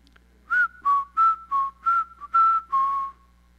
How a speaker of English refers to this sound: So when she comes home from school, I'll whistle.